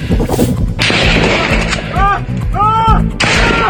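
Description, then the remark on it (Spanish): Loud gunfire from a video of an ambush on police in the State of Mexico, men with long guns firing from a plot of land: heavy booming blasts and sharp cracks, several shots in quick irregular succession over a dense rumbling background, with brief high whining tones between bursts. “Este video y este otro donde sujetos con armas largas disparan desde un terreno fueron difundidos”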